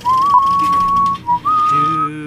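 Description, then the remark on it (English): A person whistles the Moon theme from DuckTales, clear and fairly loud, holding long steady notes with a brief break before sliding up to a higher sustained note. No talking. “Yeah, I absolutely was whistling the moon theme.”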